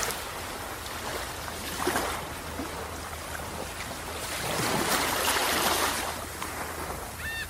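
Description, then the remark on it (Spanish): Ocean waves break and wash onto the shore in broad, hissing surges, swelling loudest midway before receding, with a steady low rumble of surf underneath and no voices. “Mientras manos relajamos, escuchamos la orilla del mar o de las olas, cómo explotan o cómo revientan en esos momentos, haciéndolo muy agradable para nuestra vista y nuestros oídos.”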